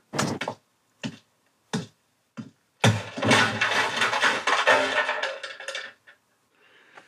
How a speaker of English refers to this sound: This is a part of the sound effect that I added. Well, that's Foley giving us the body fall. And I remember they actually had an old printer that they destroyed to help us hear this sound.